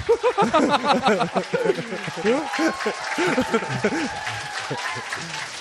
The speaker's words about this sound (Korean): 우리 어준 씨한테 박수 좀 치, 쳐주시고요.